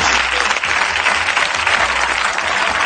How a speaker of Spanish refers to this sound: Venga, aplauden, aplauden a Vaquero. Gracias, vaquero. Gracias, Vaquero.